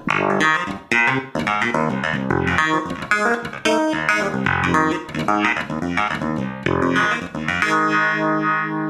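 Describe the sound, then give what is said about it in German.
An electric guitar runs through a Uni-Vibe modulation effect, its chords and phrases given a throbbing, swirling pulse. It plays loud and continuous with a slightly gritty edge, no voices. “I don't, ich weiß gar nicht, was ein U-Vibe ist.”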